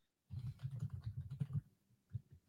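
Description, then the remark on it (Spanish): Rapid clacking of keys on a HyperX mechanical keyboard, a dense burst of fast typing for over a second, a short pause, then a few more keystrokes, fairly quiet. “Dios mío, que es un teclado mecánico de HyperX.”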